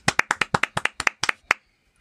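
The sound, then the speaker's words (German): A short burst of hand clapping for the first listener to give the right answer in a sound-of-the-week quiz: about a dozen quick, sharp claps in an uneven rhythm, lasting under two seconds before stopping abruptly. “Darauf einen ganz kleinen Applaus kommen.”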